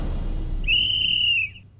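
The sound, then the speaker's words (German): A referee's whistle gives one long, shrill blast signalling the kickoff of a football match, lasting nearly a second, loud, over a low rumbling background with no voices. “Eine Sekunde nach dem Anpfiff hatte er den Anstoßkreis hinter sich gelassen”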